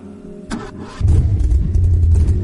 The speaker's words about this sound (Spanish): El sonido de los motores me tranquiliza. Pisar el acelerador en vacío y sentir cómo las revoluciones de la bestia japonesa que tengo entre mis manos se contienen me aporta calma.